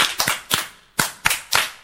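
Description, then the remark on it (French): A school class claps together in a rhythmic cheer for a pupil who found a word during a French letter-sound lesson: two quick sets of three sharp, crisp claps, with a short pause between the sets. The claps are fairly loud, and no one talks over them. “Super, un bas pour lui aussi.”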